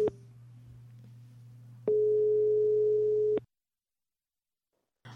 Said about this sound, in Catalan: Doncs truquem-li. Som-hi. Aviam si això sona... Ja sona.